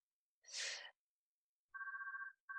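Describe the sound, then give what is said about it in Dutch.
A short breathy gasp, then a telephone starts ringing with a warbling electronic two-tone trill that breaks off briefly and begins again, clear, with no talking. “Ik zit even te wachten tot de telefoon voorbij is.”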